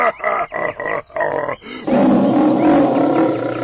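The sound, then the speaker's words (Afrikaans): A loud lion's roaring laugh: about five quick, rhythmic guttural bursts, then one long, sustained rumbling roar, with no talking. “Maar Lambert die leeu lag tog te lekker”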